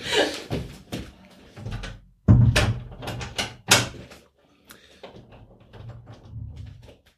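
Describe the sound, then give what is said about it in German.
A door is shut with a heavy thud, followed by several sharp clicks and knocks of the latch and handle, then quieter rattling as it settles. “Ja, ähm, Moment, ich wollte die Tür.”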